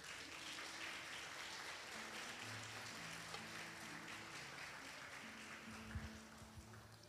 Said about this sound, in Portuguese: Vamos aplaudir o Senhor, né, gente?